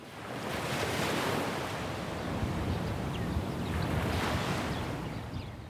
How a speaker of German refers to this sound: Blauer Himmel, die Wellen des Mittelmeers schwappen an den Sandstrand des Dor Beach südlich von Haifa.